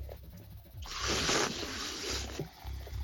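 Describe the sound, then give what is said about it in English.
A sustained slurp of hot coffee, an airy hissing sip lasting over a second, with softer mouth noises before and after it. “Hear me slurp coffee.”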